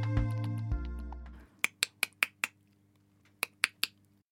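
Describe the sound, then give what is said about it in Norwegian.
Sharp tongue clicks made with the mouth for echolocation: a quick, even run of five, a short pause, then three more, following a brief low hum that fades out. “Og hvordan høres disse klikkelydene ut?”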